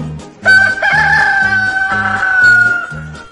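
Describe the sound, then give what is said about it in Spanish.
A rooster crows once in a long, drawn-out, loud cock-a-doodle-doo over a steady repeating low rhythmic backing. “De regreso a casa se topó con el señor gallo.”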